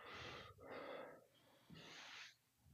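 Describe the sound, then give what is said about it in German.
A dog pants and snorts in a few rough, breathy bursts, wheezy huffs with short pauses between them, heard alone without any talking. “kannst du deinen Hund nicht mal abstellen?”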